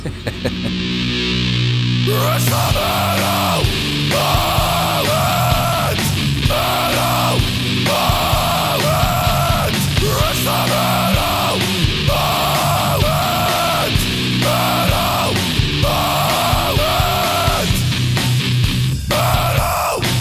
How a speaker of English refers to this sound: a metal moment jingle candidate here. Ooh. And I missed it when he sent it to me originally.